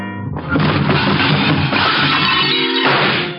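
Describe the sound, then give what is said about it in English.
A loud crash of dishes erupts and keeps clattering and rattling for about three seconds as a serving cart loaded with dishes is shoved into a wall and its crockery smashes and tumbles, with no voices. “I give it a shove towards the wall and wait.”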